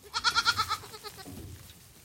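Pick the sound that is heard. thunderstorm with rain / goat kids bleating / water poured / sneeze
goat kids bleating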